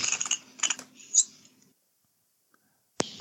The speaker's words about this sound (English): You want that little cracking that those twist offs have